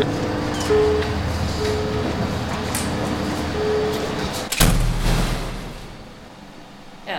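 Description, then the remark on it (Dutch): Loud, steady roar of ventilation air rushing through a concrete building with walls about 1.70 metres thick, with a faint hum running through it and a sharp thud partway through before the rumble eases slightly. “en eenmaal binnen in het gebouw, toen we de eerste deuren door waren, hoorde een enorme herrie. En dat was de luchtdoorstroom, die, eh, die daar, eh, de ventilatie die daar door het eh, gebouw raast.”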